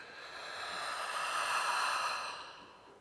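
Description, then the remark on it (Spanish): A slow, steady exhale through the mouth after an inhale through the nose during a guided breathing exercise, a soft airy rush that swells gently and fades over about three seconds, quiet with no talking. “Exhala por boca.”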